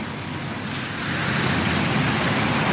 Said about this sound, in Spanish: Estos son los 40 litros de lluvia que iban a caer en Murcia. Como veis, está chispeando.